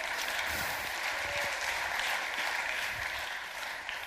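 Steady audience applause at a church service, just after a Bible passage has been read aloud, a dense, even wash of many hands clapping at once, holding at a constant level for about four seconds with no voices standing out.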